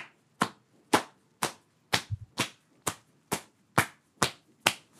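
Foley body-on-body sound: sharp, fleshy slaps of both arms, held close together as if hugging, striking a bare belly with the blouse lifted, repeated about ten times in a steady rhythm, fairly loud, each smack crisp with a short decay; no talking.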